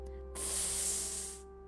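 An electric stun baton, its switch held down and its battery nearly drained, sizzles with blue sparks in one steady, bright hissing burst lasting about a second, starting abruptly and fading out, over a constant low electrical hum. No one speaks.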